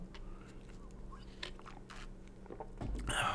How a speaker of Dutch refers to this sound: Ik ga even een slokje nemen, want eh, opa gaat nu even iets vertellen.